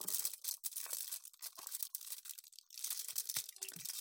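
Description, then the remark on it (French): Crinkling and tearing of an aluminium foil wrapper being unwrapped from a chocolate bar, a continuous run of sharp crackles and rustles with no one talking. “Et pendant qu'Amélie ouvre le papier à lui”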